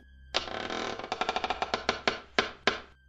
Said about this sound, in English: The door then slowly creaked open,